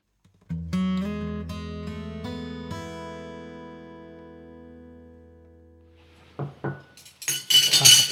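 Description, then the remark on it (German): Several quick clinks of a glass jar and cutlery, their resonant tones fading slowly, followed after a pause by a burst of louder rattling and clattering as sticks are fetched to take a sample from the jar. “Müssen wir mal eben äh, gucken, muss ich mal eben Stäbchen holen, dann warten wir. Aber nur ein Glas, das reicht ja völlig aus, dass wir mal ein, so eine Probe nehmen können.”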